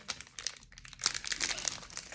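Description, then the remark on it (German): Steady crinkling of a foil trading card booster pack being pulled and torn open by hand, with sharp bursts of crackle and rustle running through the whole stretch. “Am Ende, e-, am Ende krieg ich das Berg nicht auf. Hilfe.”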